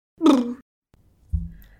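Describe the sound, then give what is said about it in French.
A drawn-out, moaning yawn rises and fades, and after a short silence a lower, muffled second yawn follows, as if two people are yawning one after the other. “Oh, tu veux, tu veux qu'on refasse un bail Non, ça va, bien aller là, ça suffit.”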